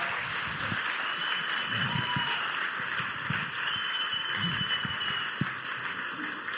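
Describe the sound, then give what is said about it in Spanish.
An audience applauds a band steadily for several seconds, a dense, even wash of many clapping hands at a constant loudness, with faint voices murmuring underneath. “Yo les propongo un enorme aplauso para ellos.”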